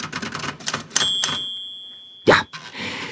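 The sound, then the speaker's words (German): An old, barely rusted typewriter, restored with sewing-machine oil, clatters through a quick run of keystrokes, then its line-end bell rings bright and sustains with a clear tone, followed by a sharp carriage return clunk and more typing. “Mit Geduld und Spucke und etwas Nähmaschinenöl brachte er sie wieder auf Vordermann. Sogar das Glöckchen am Zeilenende.”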